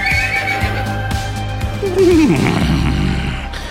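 A royal horse lets out a loud whinny that rises and then falls away over about a second, with a low rumbling background and soft thuds beneath it.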